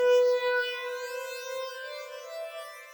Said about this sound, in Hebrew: את הליין הבא גנבתי ככה, איכשהו מאיזה שיר קיי-פופ.